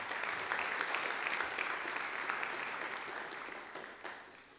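Steady, dense applause from a crowd, a broad wash of many hands clapping at once that holds strong before gradually tapering off toward the end.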